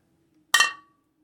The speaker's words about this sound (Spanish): Hay que hacer que suenen los cristales. Claro, entonces procedemos al ritual. Oh, escucha eso. Sí, que suenen los cristales.